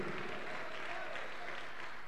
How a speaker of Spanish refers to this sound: Un aplauso grande para el Señor.